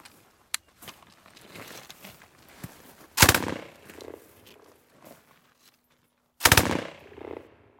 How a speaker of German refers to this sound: Hier sind wir jetzt beim Maschinengewehr.